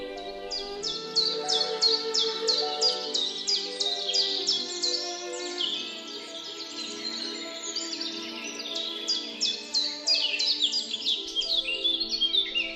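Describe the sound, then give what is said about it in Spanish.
Many birds chirp and sing continuously, their bright, rapid trills and tweets overlapping in a dense chorus that stays fairly loud and steady throughout, with no voices. “Está lleno de pájaros el mundo.”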